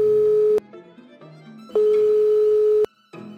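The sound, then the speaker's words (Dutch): A telephone ringing tone on a call to a researcher at Utrecht University: two steady, mid-pitched beeps, the second noticeably longer, separated by a pause, with faint background music filling the gaps. “ik heb hem even gebeld om te vragen hoe het dan wel zit.”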